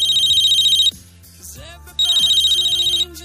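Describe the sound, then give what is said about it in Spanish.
A mobile phone rings with an incoming call from the bank's number in two loud, bright electronic bursts with a short pause between them, a rapid trilling tone over a soft musical bed. “Pasa más o menos ese tiempo, te llaman desde un número que es el que tú tienes en la agenda de tu móvil, es decir, que identificas a la perfección el teléfono de tu entidad.”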